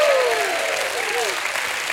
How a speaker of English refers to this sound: If you've overcome something in your life through the presence and the power of God Almighty, you ought to give Him another hand clap and a shout of praise.